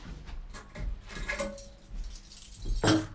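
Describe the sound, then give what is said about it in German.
Metallic keys jingle and clink in short bursts, with a louder rattle near the end as a hotel room key is handed over. “Der Schlüssel, bis Mittag räumen.”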